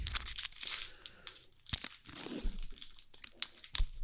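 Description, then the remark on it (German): The wrapper of a rectangular chocolate bar, a kind sold at supermarket checkouts, is torn and crinkled open. It makes a series of sharp crackling and ripping bursts over about four seconds. Fairly quiet, with no talking. “Dann öffnen wir den.”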